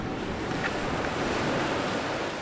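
Steady ocean surf washes continuously along the shore at Brackley Beach while wind buffets the microphone, a dense, unbroken roar with no voices present.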